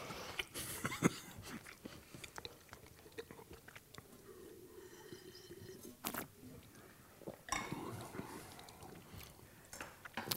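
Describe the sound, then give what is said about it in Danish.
Wet chewing of a crunchy bite containing a relatively large amount of red cabbage, with crisp irregular crunches and mouth sounds continuing steadily for several seconds, no talking. “Nu fik jeg sådan en bid med, med, med relativt meget, øh, øh, hvad hedder den, øh, rødkålen der.”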